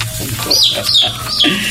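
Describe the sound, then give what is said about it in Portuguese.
Saffron finches (canários-da-terra) kept by the speaker sing in bright, high chirping phrases that repeat several times in quick succession, clear over a low, steady background hum. “É os meus passarinhos bonitinhos, canarinhos da terra.”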